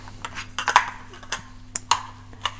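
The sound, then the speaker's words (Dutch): Blender parts being handled while tidying up: a handful of sharp clicks and clattering knocks at an irregular pace, moderately loud, over a faint steady hum. “Er staan dus, wat ik wilde zeggen, veel onderdelen van alleen al een blender.”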